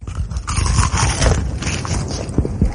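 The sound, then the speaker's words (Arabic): Loud crunching of a Herfy fried chicken fillet, crisp crackly bites and chewing bursts repeating irregularly for a few seconds, with no talking. “واحلى من هذا وهذاك قرمشة تشيكن فيليه من هيرثي”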